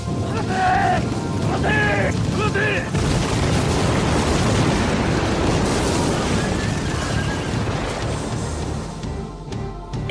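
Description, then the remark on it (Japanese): A loud, dense battle din of booming cannon blasts and gunfire, from a battle at Kumamoto Castle fought mainly by exchanging gun and cannon fire, rolls on without pause, with horses whinnying near the start and a churning roar underneath throughout. “時代は進んでいますので戦いはほぼ銃や大砲を撃ち合う砲撃戦でした。”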